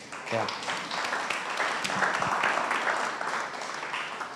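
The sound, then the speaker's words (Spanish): An audience applauding God: dense, steady clapping from many hands that carries on without pause for several seconds, with voices mingling into the noise. “Te estás perdiendo una oportunidad de aplaudirle a Dios.”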